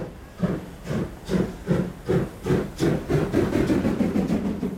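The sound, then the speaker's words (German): A steam locomotive chuffs rhythmically, about two bursts of hissing steam per second, growing slightly faster and denser toward the end, fairly loud with no voices. “Die Geschichte dieses Festes beginnt mit einer Dampflok.”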